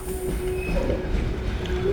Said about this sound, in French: un voyage en train avec trois longs tunnels sous les montagnes